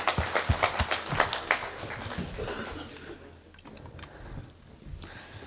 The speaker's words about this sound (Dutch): Ja, applaus, ja.